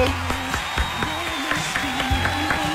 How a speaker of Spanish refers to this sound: Aplauso para el piloto.